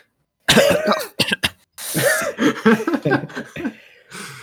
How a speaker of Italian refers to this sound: Con i, tosse, con i colpi di tosse.